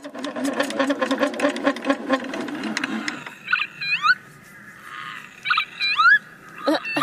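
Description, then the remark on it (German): A hand-cranked dynamo at an exhibit station, turned to generate power and play local animal calls, whirs with a fast, rattling mechanical rhythm for about three seconds, then stops, leaving a few shrill, rising lapwing calls sounding in short bursts. “An einer Dynamostation konnte man kurbeln, um weitere Tierstimmen aus der Gegend zu hören.”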